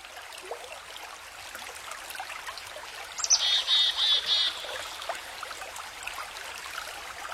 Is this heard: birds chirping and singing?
yes